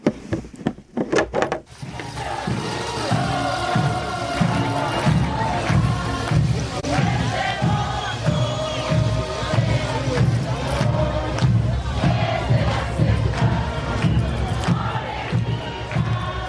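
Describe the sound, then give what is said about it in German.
Lively Bolivian carnival music plays loudly and continuously, with a steady pounding drum beat and bright melodic lines, mixed with the noise of a festive crowd. “Das ist eine Musik aus dem Karneval, weil sie haben ja sehr lange in Bolivien gelebt”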